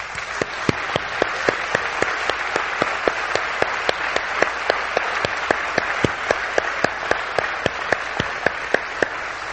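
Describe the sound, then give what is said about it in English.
A large crowd at a worship service applauds steadily to honor those who have served in the military, a dense wash of many hands clapping with sharper individual claps standing out, sustained at an even level for several seconds with no one speaking. “We'd just like to give you a round of applause for your excellent service.”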